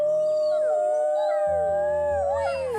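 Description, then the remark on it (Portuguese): A person imitates a wolf howling: one long, sustained howl whose pitch rises and wavers before sliding down, with a low rumble joining partway through. “o lobo e o lobinho dariam um beijinho e depois. Au!”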